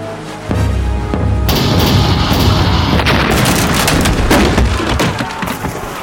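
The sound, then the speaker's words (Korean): Cannon fire from Korean navy chongtong cannons fired at Japanese ships in a sea battle: a deep boom, then a loud, continuous barrage of overlapping blasts and crackling rumble that keeps going for several seconds, with no voices. “북을 울리고 총통을 발포하라!”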